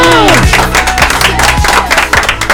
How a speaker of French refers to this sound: C'est gagnant, on peut applaudir